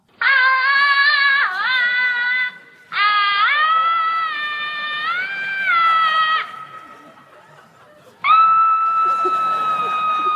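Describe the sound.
A person imitates the shrill, wavering scream of a woman storming out after losing, in three long sustained bursts separated by brief pauses, loud, with the last one rising abruptly and holding steady.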